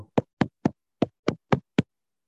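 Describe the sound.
Seven crisp popping sounds made with the mouth, evenly paced in a quick rhythm with a brief pause midway, with no talking around them.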